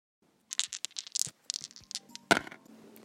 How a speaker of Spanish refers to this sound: Es momento de lanzar nuevamente los dados y cayeron en